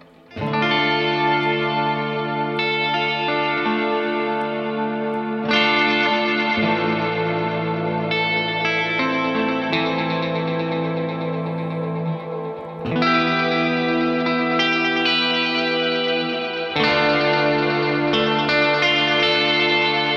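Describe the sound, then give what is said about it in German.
Sustained, swelling instrument chords smeared by an echo effect pedal in swell mode, its playback heads looped back into the feedback signal so the sound washes on at length, each chord washing into the next over several changes, loud and continuous with no voices. “das Echo, also wenn man in diesem Swell-Mode ist, ein bisschen höher drehen”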